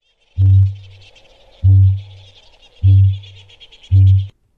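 Four deep, resonant booms at a steady, slow pace, each a low drum-like thump of a kakapo's booming call, with a faint wash of higher insect or bird chatter running underneath.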